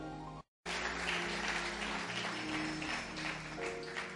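A church audience bursts into sustained applause for the Lord, a dense, loud wash of clapping hands that continues steadily for several seconds after a brief silent gap, with a low hum beneath.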